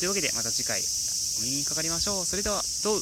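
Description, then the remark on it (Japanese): Cicadas drone in a steady, unbroken high buzz throughout at the height of summer, sitting behind a man talking in the foreground. “まあ僕の番組といったらもうセミの声なんでまあいいでしょう。”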